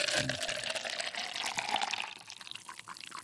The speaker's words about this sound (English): So hey, um, Sarah needed a coffee pour.